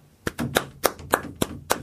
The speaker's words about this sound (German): Klatsch nochmal bitte.